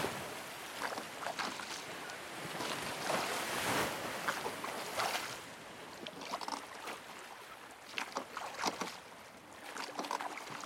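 A small rowing boat with a reddish-brown hull glides steadily over the water in the evening sun, its oars striking the surface, with continuous splashing and lapping waves against the hull and soft wind in the background. No voices are present.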